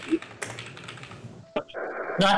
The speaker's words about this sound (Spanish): eh, tu teclado.